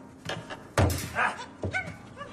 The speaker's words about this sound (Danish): Ja, den er levende. Det er den sgu. Det er, det er jo min øh, parryktamarin. Det er jo en lille abe.